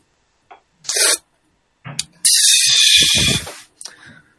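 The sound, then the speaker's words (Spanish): A national beatbox champion gives a short beatbox demonstration: sharp breathy snare-like bursts and a long hissing, cymbal-like sweep over low thumping kick sounds, all made with the mouth, tongue and body, loud and rhythmic with no talking. “soy campeón nacional de beatbox. Aquí va una pequeña demostración.”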